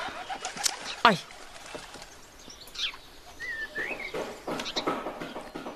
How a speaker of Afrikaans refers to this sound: Die ewige duiwe.